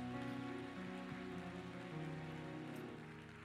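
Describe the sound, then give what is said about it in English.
A church audience clapping their hands together to give the Lord a praise, a dense, steady roar of applause that slowly tapers off, with sustained low organ-like tones underneath and no one speaking. “Clap your hands one more time and give the Lord a praise.”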